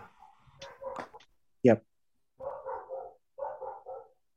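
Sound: dog yapping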